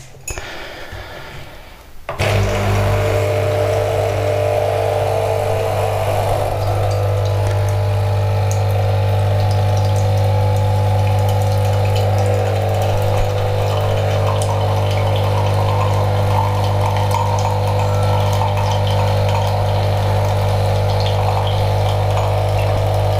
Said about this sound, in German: ihr hört die Kaffeemaschine wieder.